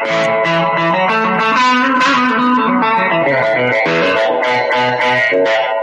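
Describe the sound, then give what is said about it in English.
An electric guitar, a Telecaster with a Lollar Specialty neck pickup, on its out-of-phase pickup setting plays a steady run of chords and notes with a thin, honky, nasal tone, loud throughout with no talking. “But anyway, I mean, but what I came to the party for was this out of phase thing.”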